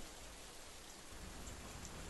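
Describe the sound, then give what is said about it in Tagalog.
Heavy rain pours down steadily, a dense, continuous hiss of drops striking surfaces, with no voices and no breaks in the downpour. “Ngunit naabutan pa rin ako ng malakas na pagbagsak ng ulan.”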